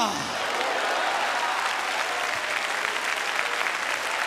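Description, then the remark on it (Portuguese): An audience claps steadily and loudly throughout, a dense, sustained wash of applause with no pauses, in response to a bilingual English-Portuguese call to clap their hands and say hallelujah. “Clap your hands and Dê um aplauso e diga aleluia.”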